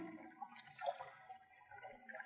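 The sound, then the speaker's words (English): Small waves lap gently against the water's edge of a lake-like body of water inside a cave, in a soft, continuous wash with faint ripples and splashes, fairly quiet, with no voices. “It's it's like a lake. Or maybe a sea. There's little waves.”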